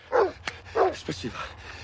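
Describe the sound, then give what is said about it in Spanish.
A guard's dog at a scrapyard barks twice in quick succession, loud, followed by softer yelping, whining noises trailing off. “El vigilante le espera con un perro.”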